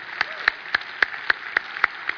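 An audience claps for the Lord in the morning in a steady, rhythmic beat, about four sharp claps per second, over a continuous wash of crowd noise. No distinct shouting stands out.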